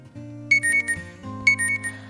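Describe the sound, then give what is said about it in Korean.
An alarm clock rings in two repeated bursts of bright, electronic beeping tones over a steady low hum, loud with no voices, waking someone who then gets ready for work. “알람 소리에 눈을 떠서 가족들을 챙기고 출근을 합니다.”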